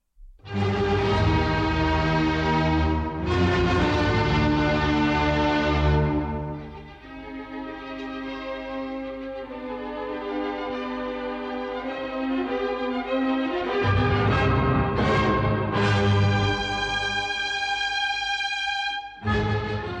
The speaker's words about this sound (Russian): сейчас мы посмотрим это на примере финала пятой симфонии Бетховена